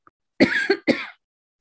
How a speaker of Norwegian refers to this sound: Beklager. Noe med det å bare la kroppen få hoste når det er det den ja. trenger.